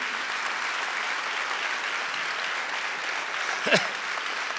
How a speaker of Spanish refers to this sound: Si va a aplaudir, venga hermano, apláudale duro.